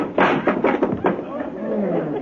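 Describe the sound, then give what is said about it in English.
A wooden door falls and clatters onto a floor: a quick burst of several sharp, loud knocks and thuds, followed by voices murmuring in the background. “door needs a little tightening too, don't it?”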